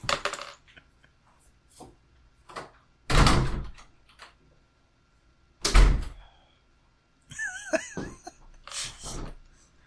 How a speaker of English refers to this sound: yep, just um, closing the doors right away so that when they come in screaming and whatever, it's like, Mom. Lock them, lock them.